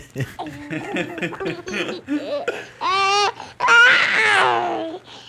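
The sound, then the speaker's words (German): A newborn baby babbles and coos in short, uneven bursts, then breaks into two louder, wavering cries, with no other voices. “Das ist die Babyübersetzung von Gato”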